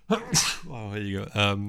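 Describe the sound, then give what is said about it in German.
A sharp sneeze bursts out, followed immediately by a person speaking in a startled, drawn-out voice. “Gesundheit.”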